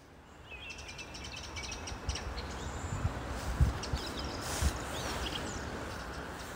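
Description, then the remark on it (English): Birdsong in Stansted Park in thick fog, early in the day: several birds trill and chirp in overlapping phrases over a soft steady background hiss, with a few low thuds. “Well, it's lovely bird song, and I'd like to tell you that it's a beautiful spring morning, but in fact, I'm at Stansted Park in almost thick fog, and I can't believe that there's still some bird song, which is lovely.”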